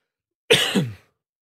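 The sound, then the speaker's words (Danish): A short, harsh cough, two quick bursts run together in about half a second, with no talking around it, from someone who got something down the wrong way. “du fik det galt i halsen.”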